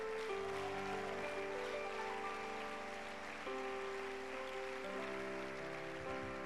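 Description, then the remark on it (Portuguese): A crowd applauds steadily in praise of God, in a dense, continuous patter, with sustained keyboard chords ringing underneath throughout. “Aplauda Ele.”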